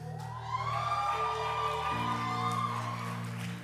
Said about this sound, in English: I am thankful for the cheer. Makes me feel comfy.